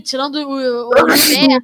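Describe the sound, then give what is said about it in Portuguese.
A single sharp sneeze bursts out partway through a man's speech, loud, followed by a brief laugh as he keeps talking. “Saúde.”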